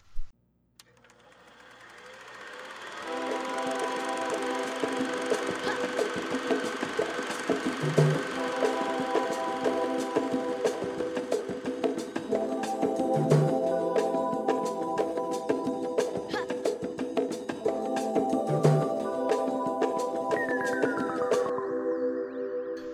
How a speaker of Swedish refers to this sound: Fick en ny introlåt av … och den låter så här